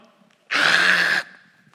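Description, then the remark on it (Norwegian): A voice imitates men in the biblical story of Gideon lying on all fours and slurping water from a river: one sustained, loud, breathy sucking sound lasting under a second, hissy and bright with a faint whistling tone, starting and stopping abruptly against near silence. “og slurper.”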